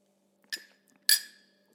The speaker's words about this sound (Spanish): Salud. Ahora sí, es muy importante hacer los breaks, de hecho, así que por eso te invitaba a tomar un sorbo de café conmigo.